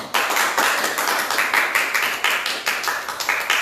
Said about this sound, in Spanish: Cuando le quieren dar algunas palmas al Señor.